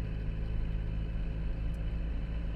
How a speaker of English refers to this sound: There's loads of trucks here.